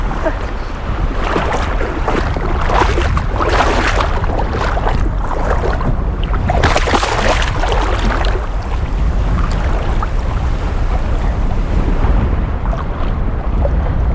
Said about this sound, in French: Ça, c'était le plongeon numéro 1. Je vais en tenter un autre.